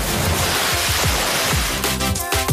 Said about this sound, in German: Ostsee, Sonne und Wind. Die Wellen brechen, man hört viele Stimmen in den Ostseewellen.